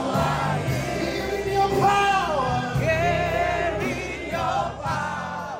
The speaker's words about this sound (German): Ihr werdet geheilt von HIV, von Krebs und Rückenschmerzen, ruft der Pastor. Das Publikum klatscht und schreit in Ekstase.